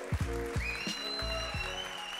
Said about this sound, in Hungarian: nagy tapsot adjunk az Úrnak.